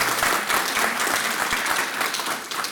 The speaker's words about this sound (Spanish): Dale ese fuerte aplauso al Señor.